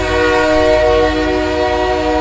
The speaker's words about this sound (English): The hum of the tires from random passing cars would produce aperiodic background noise, but nearby trains that sound a whistle every 10 minutes